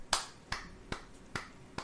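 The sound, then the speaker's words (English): Five sharp hand claps in a slow, steady rhythm, given as a real round of applause, each a crisp, bright smack with a brief decay, with no voices in between. “Come on, I'm doing cheap. it for real because it, it, deserves a real clap.”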